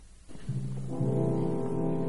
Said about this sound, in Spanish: arránquese con el final del primer acto de La Valquiria, por favor. Se lo mando.